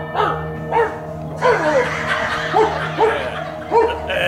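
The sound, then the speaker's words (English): A dog named Buster barks repeatedly in short, sharp bursts at an uneven pace, loud, over a steady background hum, inside an apartment. “the dog bite?”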